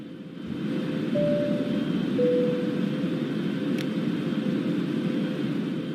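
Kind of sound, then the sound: vehicle, airplane flying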